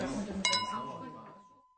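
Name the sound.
glasses clinking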